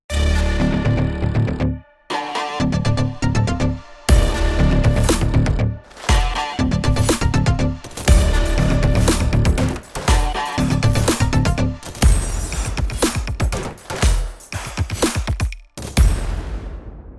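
Loud Viking-style percussion from a virtual instrument, three multis (Tonals, Foundation, Support) played together from a keyboard: heavy booming drum hits in driving rhythmic patterns, layered with tonal textures, with brief pauses between phrases and no voices.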